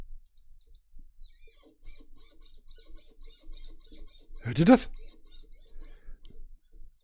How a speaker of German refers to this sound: Mein Mikromon, mein Mikrofonständer quietscht. Boah. Der quietscht aber heftig. Mein, mein Mikrofonständer.